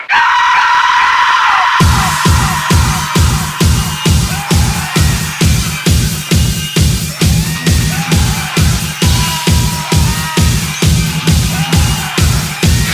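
An industrial metal song from a 1995 album, with harsh screamed vocals, opening with a sustained scream before pounding, mechanical drums and guitars kick in at a steady, driving pulse, loud and dense throughout.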